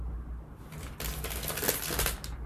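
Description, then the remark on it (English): Crisp crunching of corn chips being chewed, a dense run of sharp crackles lasting about a second over a low steady hum, with no talking. “Sorry for the ASMR.”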